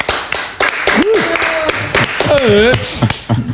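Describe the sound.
Loud, dense applause from a talk show audience welcoming a rock blues band, with rapid overlapping claps running throughout, mixed with voices shouting and whooping in rising and falling tones.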